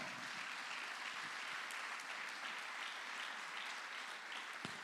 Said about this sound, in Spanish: Usted le da palmas con fuerza al Señor.